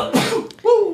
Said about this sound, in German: Gesundheit.